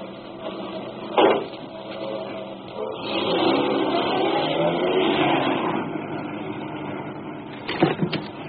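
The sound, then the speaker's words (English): A car engine turns over and revs up, its rough motor noise rising and holding steady, with a sharp thump early on and a couple of clunks near the end. No talking. “I'll go get my car.”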